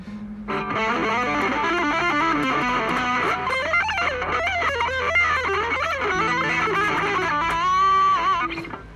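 A distorted electric guitar plays a fluid, bending lead phrase over a sustained low note, loud, with a thick, saturated tone and a held, wavering note near the end.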